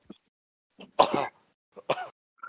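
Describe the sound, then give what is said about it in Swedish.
A person clears their throat twice, two short rough rasps about a second apart, with faint breaths and small mouth sounds between them and no talking. “Det är de, som surar och äh, harklar mig sen.”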